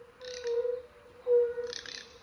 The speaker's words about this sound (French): Le concert commence. Ce sont des dizaines de crapauds sonneurs à ventre de feu. Ils donnent le tempo et installent l'ambiance.